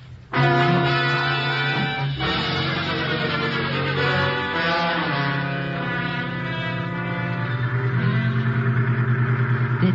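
Loud vehicle engines run steadily for the whole stretch, their droning pitch shifting now and then as they shift gears and rev: a truck leading the way and a taxi cab following behind.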